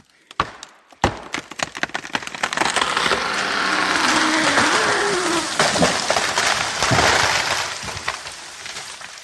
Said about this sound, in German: Das ist gar nicht so leicht. Hm? Hast du es erkannt? Richtig, ein Baum, der umfällt.